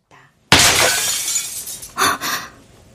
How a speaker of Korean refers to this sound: 황폐하게 보이는 거실 벽면에 걸려 있던 사진 액자가 바닥으로 툭 떨어졌다.